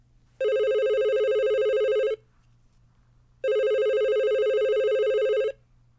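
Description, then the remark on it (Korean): A telephone rings with an incoming call on a winter day, twice, each ring a steady, bright electronic trill lasting about two seconds, with a pause of silence between them over a faint low hum. “그 사람과 헤어지고 5년이 지난 어느 겨울날 전화가 한 통 걸려왔습니다.”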